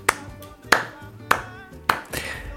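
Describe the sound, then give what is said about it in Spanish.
Four crisp hand claps land in a steady, evenly spaced rhythm, standing out sharply over the soft, tonal music at the tail end of a song. “A mí me encantan las palmas del final de...”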